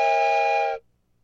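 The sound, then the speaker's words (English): A single loud, steady blast of an authentic Strasburg Railroad train whistle, blown by a person aboard a railroad train car, with a bright, multi-toned chord that lasts under a second and cuts off abruptly, leaving near silence. “It is an authentic train whistle from the Strasburg Railroad when I visited when my kids were little,”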